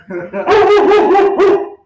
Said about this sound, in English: In the background, we also have my dog Bones